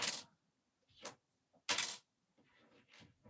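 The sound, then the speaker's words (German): Dice clatter across a table: a few sharp rattling bursts, then a quicker run of softer tumbling clicks as they settle. No one speaks. “Ich habe sie gewürfelt.”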